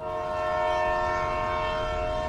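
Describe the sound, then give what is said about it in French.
A train horn sounds as one loud, steady blast with a rich, harmonic tone, held unbroken through the whole moment as the train departs after the doors close. Nobody speaks. “Attention à la fermeture des portes, attention au départ.”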